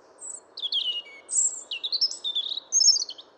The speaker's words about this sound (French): Coucou à tous et bienvenue dans une nouvelle chronique des oiseaux Je vous laisse d'ores et déjà écouter le chant du jour.